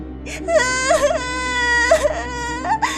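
A girl cries loudly, with drawn-out, wavering wails broken by short sobbing catches, lasting the whole few seconds with no other talking.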